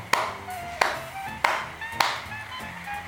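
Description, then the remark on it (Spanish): A slow, steady clap: four sharp, loud smacks spaced evenly about two-thirds of a second apart, each leaving a brief ringing tail, with no voices. “Ok, bueno, aplauso.”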